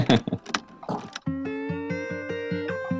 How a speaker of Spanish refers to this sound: Se ponía en marcha la gramola, Cruz de las Monedas, y suena esta música.